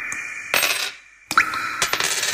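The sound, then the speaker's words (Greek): Coins clink as they drop into a piggy bank in an advert for Inventor dehumidifiers, two bursts of bright metallic jingling separated by a brief pause, each followed by a ringing high-pitched rattle. No one speaks. “Κάθε σταγόνα υγρασία που συγκεντρώνεται σε έναν αφιγραντήρα Inventor είναι χρήματα που πηγαίνουν στον κουμπαρά τη θέρμανσης.”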